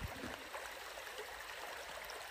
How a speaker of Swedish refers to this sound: Lyssna min bakgrund här. Nu tycker jag att vi pausar decemberyran lite och bara chillar och lyssnar till det porlande vattnet den, eh